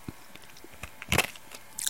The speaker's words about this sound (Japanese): 氷の咀嚼音。